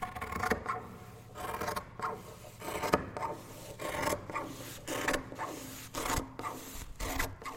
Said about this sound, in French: les ciseaux qui coupent un tissu ou qui coupent du papier, du patron. Mais ben, ça, c'est très agréable, surtout quand les ciseaux sont bien aiguisés.